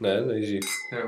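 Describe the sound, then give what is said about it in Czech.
Glasses clink together once in a toast, a bright, ringing tap, with men's voices talking just before and after. “Tak si připijem.”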